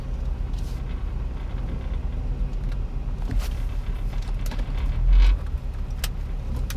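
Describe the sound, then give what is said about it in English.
A car engine hums steadily at low speed as the car loops around a parking lot with free spots everywhere, with faint clicks and rattles from inside the vehicle and a brief swell in the rumble near the end. No one speaks. “Why are you looping around again? Just park! We'll walk the extra few feet.”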